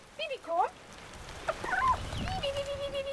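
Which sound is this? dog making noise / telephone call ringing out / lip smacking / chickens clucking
chickens clucking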